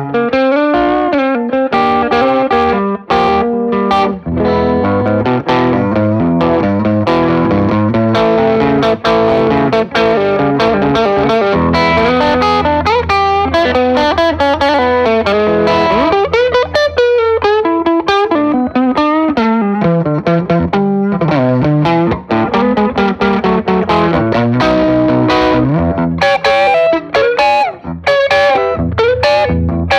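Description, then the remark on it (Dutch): Distorted electric guitar with a humbucker pickup plays sustained chords and melodic bends, thick and saturated with a chorus-like shimmer, continuous and loud throughout with no talking. “Dus heb ik mm. een humbucker ingezet.”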